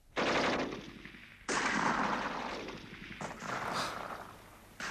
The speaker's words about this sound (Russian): Слышишь? Мы раздвинули листву и выглянули из шалаша. Дорога на Носовку была покрыта облаками пыли. На станции шла стрельба.